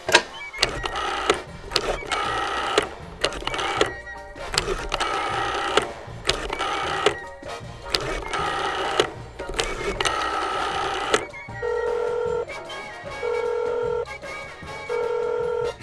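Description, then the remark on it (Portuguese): A phone number is dialed: a stretch of clattering, mechanical bursts gives way to a run of short, evenly spaced keypad tones, clear, with no one talking. “Peraí, vou ligar.”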